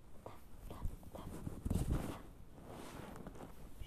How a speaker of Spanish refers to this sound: Llueve. El agua regresa a las selvas de la lluvia, pero los animales no se despiertan.